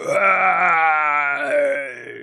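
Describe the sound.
A person mimics the roar of a Frankenstein-style monster climbing through a window in a comic panel, with one loud, sustained, groaning cry lasting about two seconds, holding a low, harmonically rich pitch before trailing off slightly at the end.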